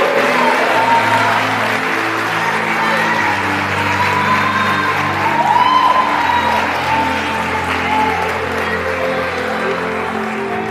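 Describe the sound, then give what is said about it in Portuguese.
A large crowd applauds the Lord steadily throughout, hands raised, a dense, loud wash of clapping with scattered cheers, while sustained keyboard chords play underneath. “jogue a sua mão para cima e receba a conquista de Deus. Aplauda o Senhor.”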